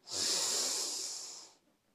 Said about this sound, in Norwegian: Vi puster inn en gang til. Pust godt inn med nesa.